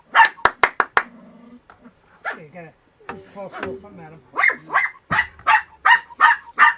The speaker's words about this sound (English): We have dogs barking too.